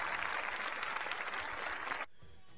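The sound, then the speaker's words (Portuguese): A burst of applause, dense and steady for about two seconds, then cutting off abruptly into quiet background. No one speaks over it. “Parabéns, é, então, salva de palmas para a ajuda.”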